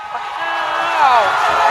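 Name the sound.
applause sound effect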